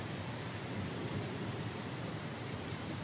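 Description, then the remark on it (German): At night, a thunderstorm's heavy downpour roars steadily and densely throughout, with a low, continuous rumble underneath and no distinct thunderclap, while lightning flashes constantly; no one speaks. “ich glaube, ich muss jetzt gleich sterben. Aber mir der Blitz mitten in die Stirn schlägt.”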